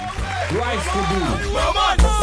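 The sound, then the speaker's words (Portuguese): A crowd cheering and clapping sound effect, with rising and falling whoops and shouts over a steady, loud wash of noise lasting about two seconds. “tem que meter aplauso.”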